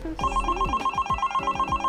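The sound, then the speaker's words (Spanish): A phone rings with a steady, bright electronic tone, pulsing in quick regular beats throughout, loud and alone with no voices. It is the second call, ringing while its owner rides a scooter along the Virrey Liniers bike path. “No sacó el teléfono porque pensó que podía ser su vieja.”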